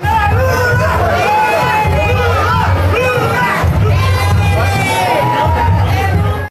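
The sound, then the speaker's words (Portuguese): A street celebration crowd of supporters shouts and cheers without pause in heavy rain with lightning and thunder, many loud voices overlapping with whoops and yells rising out of the dense, steady roar, alongside music and drums. “Além dos gritos, música e tambores.”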